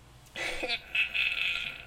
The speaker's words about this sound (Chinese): 他会不会把我椅子我椅子的声音收进去？ 可能会哦， 我没有在放屁哦，是那个椅子会发出奇怪的声音。